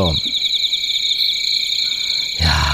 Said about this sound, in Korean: 이 풀벌레 소리죠? 그죠? 올가을에 많이 들으셨나요? 이 오늘 풀벌레 소리가 어떤 노래에 숨겨져 있을 거예요.